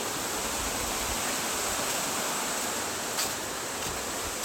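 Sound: waterfall rushing water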